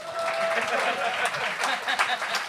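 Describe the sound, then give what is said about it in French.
A crowd applauds steadily and loudly for a couple of seconds at a comedy show, a dense crackle of many hands clapping at once, with a brief thin whistle-like tone early on and some murmuring mixed in, as the performer asks for applause. “Euh, applaudissez ceux qui me connaissent et ceux qui ne me connaissent pas.”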